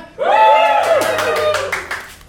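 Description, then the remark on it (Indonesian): A paid audience breaks into applause, a loud held cheer from the crowd giving way to a run of sharp claps that fade out after about two seconds. “sekarang kita tarik penonton bayaran biar lebih hidup ya.”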